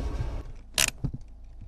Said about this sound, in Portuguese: No chão há vários troncos e paus. Um deles enfia-se debaixo do carro.